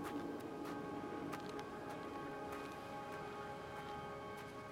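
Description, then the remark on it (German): Quiet outdoor ambience in Tromsø, Norway, in the Arctic: a soft, steady background hush with a faint low hum and a few tiny, scattered clicks, with no voices. “das andere wäre jetzt eben in Tromsø, Tromsø in Norwegen in der Arktis.”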